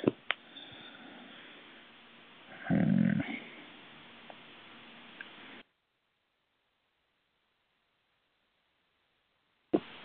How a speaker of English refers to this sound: Was that? A demon? It's a neighbor's dog. It's um, part pit bull, part asshole.